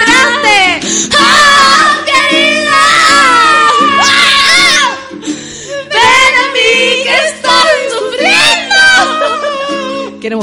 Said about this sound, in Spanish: Si usted pensó que esto era griterío, sí, es solo griterío. Muy desde temprano.